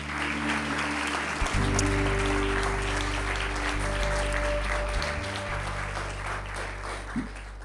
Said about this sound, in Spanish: Uma salva de palmas ao nosso Deus.